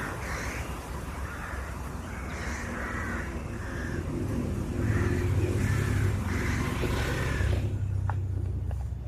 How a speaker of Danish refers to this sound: Vi skal på kravejagt for at tale om vores dobbeltbundede forhold til de her sorte kravefugle.